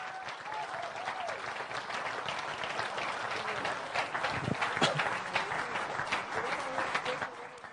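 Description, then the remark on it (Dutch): An audience gives steady encouragement applause while seven people come up to stand beside the speaker. It is a dense wash of many hands clapping that holds at a fairly even level throughout, with a few louder claps and faint voices mixed in. “Ja, blijf maar even klappen tot ze staan.”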